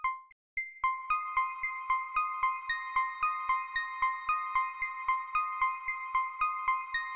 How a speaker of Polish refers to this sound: Tu mamy bohatera drugiego planu, praktycznie niesłyszalnego, ale totalnie niezbędnego to takie niepozorne syntetyczne dzwonki, które zrobiłem na Jupiterze w zalewie z pogłosu Black Hole firmy Eventide.